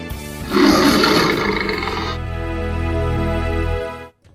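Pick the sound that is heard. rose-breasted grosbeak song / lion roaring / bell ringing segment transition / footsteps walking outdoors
lion roaring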